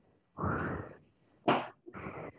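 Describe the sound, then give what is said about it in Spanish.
A voice imitates angry deep breathing: three heavy, forceful breaths, a long rough exhale, then a sharp sudden one and a final ragged huff, loud and breathy with no words. “Vea usted cualquier persona enojada y hace.”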